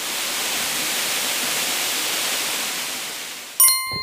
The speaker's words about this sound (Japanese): 滝ですね上からこう滝の水が勢いよく流れ落ちてそれが下の岩にぶつかってさらにこう2個目の滝みたいになってるんですよ気持ちいいあの滝のこの白い水の流れに太陽の光が上から差し込んで虹が見えてますおお綺麗